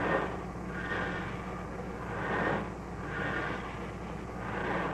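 Iron lung respirators pump air in a steady, rhythmic whoosh, broad mechanical breathing that swells and recedes about every two seconds over a constant low hum, with no voices.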